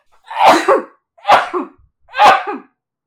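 Three sharp, loud sneezes in quick succession, each a forceful burst with a brief pause between them and no talking.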